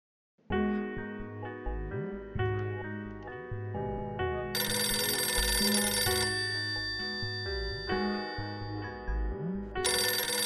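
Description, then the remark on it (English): A telephone rings with a bright, melodic electronic ringtone, loud, its repeating tune playing continuously for about ten seconds with no one speaking. “I'm sorry if it took me a while to get to the phone, love.”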